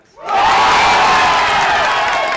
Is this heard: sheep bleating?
no